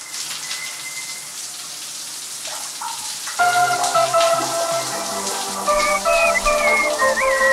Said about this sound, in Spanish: Y ahora voy a darme una ducha, Dios mío.